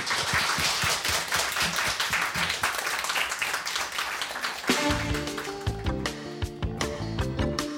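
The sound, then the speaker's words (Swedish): A studio audience at the Swedish local radio station Radio Total Normal 101,1 applauds a guest at the end of an interview, a dense, steady burst of clapping for several seconds, then a music bed fades in and plays beneath the last of the applause. “En Applåd”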